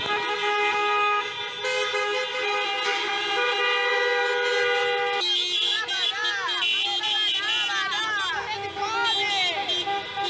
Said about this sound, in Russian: у них там проводили забастовки бизнесмены, они садились в свои машины, в машинах, в комфортабельных, с закрытыми окнами э, ездили, бибикали и, кричали, да, да, да, да, чтобы рабочие выходили, чтобы рабочие выходили на работу.